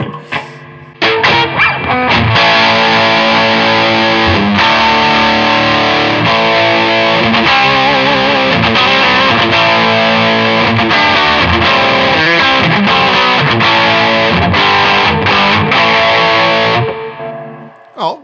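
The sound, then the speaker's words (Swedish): An electric guitar played through heavy distortion, thick and buzzing with sustained chords and short riffs, loud and continuous for about sixteen seconds before stopping. “Hoppa på lite dist kanske?”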